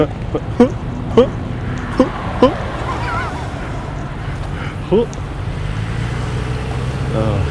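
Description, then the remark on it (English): Fire trucks rumble past on a city street, a steady low engine drone with scattered sharp knocks and clatters, and voices faintly audible in the background. “Any more fire trucks, there'll be more trucks than buses.”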